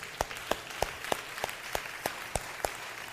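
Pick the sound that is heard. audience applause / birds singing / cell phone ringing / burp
audience applause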